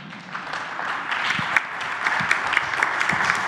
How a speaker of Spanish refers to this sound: Un aplauso, ¿no?